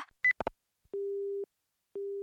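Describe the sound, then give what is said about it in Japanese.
A telephone handset clatters down as a call is hung up, followed by a steady busy tone sounding in long, evenly spaced beeps with silent gaps between them, clear. “もういい私そんな都合のいい女じゃないのもう二度とかけてこないで”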